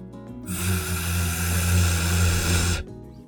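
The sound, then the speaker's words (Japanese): A person holds a single voiced "v" sound for about two seconds, demonstrating the V consonant made with the vocal cords and buzzing lips: a steady low buzz of vibrating lips mixed with a bright airy hiss, starting and stopping abruptly with no speech. “えっと、この音が V の音になります。”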